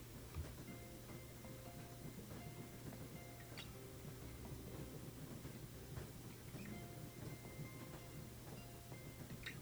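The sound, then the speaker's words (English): A train rumbles steadily along the tracks through mountains, a low constant drone under soft, repeating clicks and clatter, heard from inside a cabin with a small open window, with no voices. “as you listen to the rhythm of the train.”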